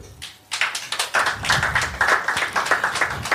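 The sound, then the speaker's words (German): An audience bursts into clapping, a dense patter of many hands that starts suddenly and keeps going steadily, fairly loud and with no voices over it. The audience is clapping to show they like the word 'Heimat' (homeland). “Würdet diejenigen, die, den Heim, die das Wort Heimat mögen, mal klatschen?”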